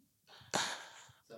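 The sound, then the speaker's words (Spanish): A single sneeze: a short breathy intake, then a sudden sharp burst that trails off into a hissy exhale. A brief breath or voice sound follows at the end. “Salud. Salud, hermano.”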